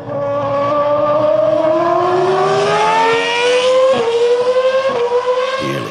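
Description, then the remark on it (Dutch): A loud, high-pitched Formula 1 V10 engine screams as it accelerates, its pitch climbing steadily and dipping briefly at several quick gear shifts near the end. No one speaks. “als het aan Max ligt, dan keert de V10-motor gewoon terug in de Formule 1”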